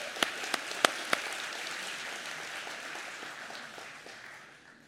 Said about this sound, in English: Come on up, son. Come on up. Everybody cheer as he comes up.